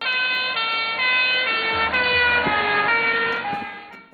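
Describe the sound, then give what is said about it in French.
A loud car with a siren-like tonal horn approaches, passes and moves away, its steady pitch dropping in steps from the Doppler effect, over a low engine rumble and no voices. “Voici ce que vous entendez quand une voiture vient vers vous, vous dépasse puis s'éloigne de vous.”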